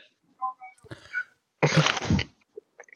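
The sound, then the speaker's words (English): A loud, raspy burp after drinking Miller Lite beer, lasting about half a second, preceded by a few small throaty noises and light rustling, then a quiet pause. “Ooh, Miller Lite with the burps.”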